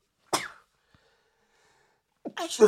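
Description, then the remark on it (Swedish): A single sharp sneeze bursts out, followed by a pause of near silence before a voice starts speaking. “Oj, prosit.”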